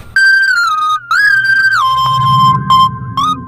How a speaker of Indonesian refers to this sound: Setelah ditekan, sebuah lagu dengan melodi yang aneh terdengar dari benda bulat itu.